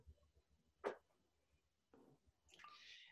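Murphy's beer is poured into a glass: a quick wet splash, a short gurgling burst, then a soft, steady fizzing hiss of foam. The sounds are quiet, with no talking.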